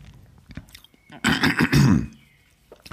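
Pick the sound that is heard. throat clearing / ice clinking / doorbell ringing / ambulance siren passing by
throat clearing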